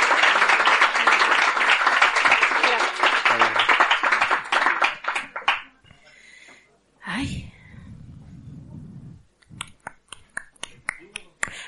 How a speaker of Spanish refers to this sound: Aplauso. Gracias.